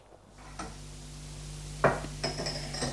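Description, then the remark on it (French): Dishes and cutlery clink as the first course of a meal is served, with a few sharp clatters and ringing metallic taps standing out over a low background hum, moderately loud. “C'est bien entendu Martin qui fait le service. Pendant le repas”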